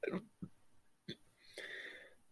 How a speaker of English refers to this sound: Getting hiccup attack.